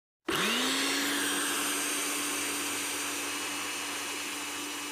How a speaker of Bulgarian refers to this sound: И хоп, пускаме блендера.